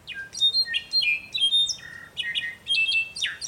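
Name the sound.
bird song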